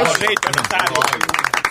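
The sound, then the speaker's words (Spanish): A short burst of applause, many quick claps overlapping in an uneven patter, with voices talking over it at the start. “Mío, gracias por el aplauso.”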